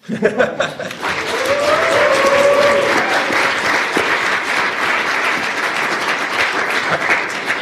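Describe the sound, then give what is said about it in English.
An audience at a live talk breaks into loud, sustained applause at the end of the session, dense clapping that swells within the first second and carries steadily to the end, with a few whoops and bits of laughter mixed in. “We can take some questions, but I feel that we should end this as we began with wild, unabandoned applause.”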